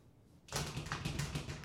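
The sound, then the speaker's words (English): After a brief quiet moment, a fairly loud burst of rapid rattling taps runs for over a second, someone imitating a person grabbing a locked door and trying to open it, then trying again. “like they just grab the door and try to open it. Doesn't open. And they do it again.”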